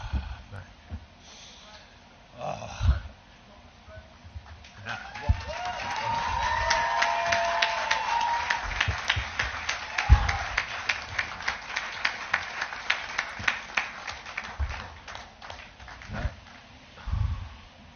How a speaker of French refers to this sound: on peut ressentir même les, applaudissements. Donc vous entendez, c'est les journalistes et les gens présents dans la, conférence de presse, tout simplement